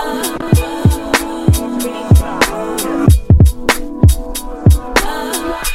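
A hip-hop instrumental intro played on a hip-hop radio show, with punchy, booming kick drums and sharp snare hits on a steady mid-tempo beat over a sustained melodic loop, loud with no vocals.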